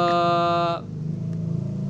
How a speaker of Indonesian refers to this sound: ada sepeda motor lewat